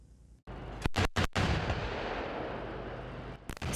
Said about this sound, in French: C'est le discours de vente ultime, une attaque hautement chorégraphiée sur une colline dans la campagne sud-coréenne. Chars K2, obusiers K9, Apache et drones, un assaut combiné pour le spectacle.